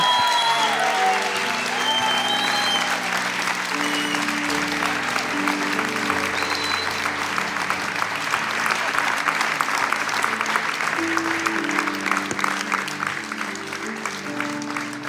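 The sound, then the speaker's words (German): Sustained applause from a large audience for a group of women, a dense, steady clatter of many hands clapping for the full fifteen seconds, with sustained musical tones playing underneath. “Hey, lasst uns auch zu Hause dieser grandiosen Frauen einen fetten Applaus geben.”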